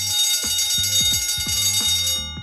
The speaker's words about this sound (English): And the electric bell had a different purpose. It was really to let people know that something was on fire